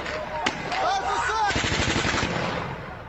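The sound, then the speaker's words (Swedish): A single sharp shot rings out, followed by raised voices, then a long, rapid burst of automatic gunfire rattles loudly and steadily over the crowd until the end, as Russian forces fire on hundreds of residents holding a peaceful demonstration in the town of Slavutych, near the border with Belarus. “Så här lät det igår när hundratals invånare i staden Slavotyj nära gränsen till Belarus möttes av rysk beskjutning i samband med en fredlig demonstration i stan.”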